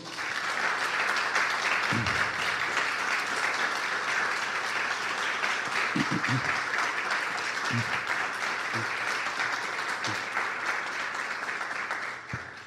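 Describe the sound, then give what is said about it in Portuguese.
A church audience claps for the Lord steadily for about twelve seconds, a dense, even wash of many hands, with a few low thumps and faint voices scattered through it before the applause tapers off at the end. “Então eu queria que você aplaudisse ao Senhor.”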